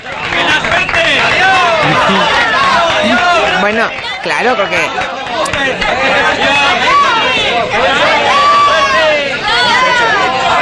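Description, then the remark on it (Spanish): A large crowd in a film scene cheers and shouts at once as workers carry away a phone booth with a man inside, many overlapping voices forming a loud, continuous roar that stays steady throughout, with a few individual voices calling out above the din. “La multitud que despide a los operarios que cogen la cabina entera con el personaje dentro, con el pedazo dentro, para llevársela.”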